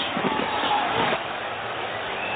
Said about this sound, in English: This will be a 58-yard attempt. Here we go. Longest field goal in Giants history is 57 yards. Love the crowd smartly quieting each other down.